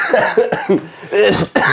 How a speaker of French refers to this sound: Laissez-moi Laissez-moi tousser